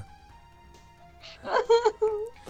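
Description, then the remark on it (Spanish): People crying and wailing in a few loud, drawn-out vocal bursts with wavering pitch, rising after a quiet start and lasting only a couple of seconds. “Ese, sonido de frikis llorando señala el final del podcast.”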